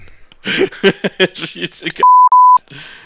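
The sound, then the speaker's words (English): A man talks quickly, then a loud, steady censor bleep cuts in for about half a second, briefly broken in the middle, masking a swear word before quieter talk resumes. “I wanted you to beep an innocu- innocuous word.”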